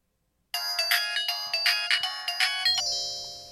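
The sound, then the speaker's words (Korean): A bright electronic phone ringtone plays a quick, bouncy melody of repeated notes on an outgoing call to the speaker's father after arriving in Daejeon, then settles into a sustained tone that fades out. No one speaks. “그리고 대전에 도착해서 용기 내어 아버지께 전화를 걸었어요”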